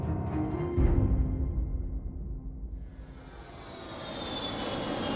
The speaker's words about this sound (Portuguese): Fim de tarde, 7 de janeiro de 94 dentro de um jato executivo Hawker 700 com destino a Fort Lauderdale, Flórida.